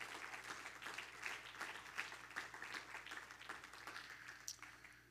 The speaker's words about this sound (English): As, as Pastor comes to the pulpit, would you remain standing and just clap your hands to Jesus and give him a shout of praise tonight?